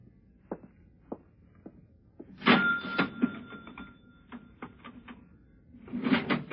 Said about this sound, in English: Open the cash register. Quick.